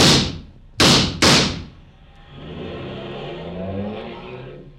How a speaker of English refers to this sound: He got away, didn't he, Mr. Clover? In a car. He got away.